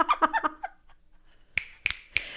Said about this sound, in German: Ich schnippe. Ich schnippe.